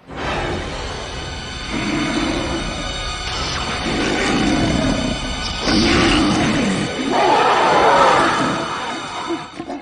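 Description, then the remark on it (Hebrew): The monstrous film wolf Gmork roars and growls in several deep, drawn-out bursts, loud, with rumbling, crashing noise beneath and no talking. “והאויב הזה הוא זאב בשם אה, הגמורק.”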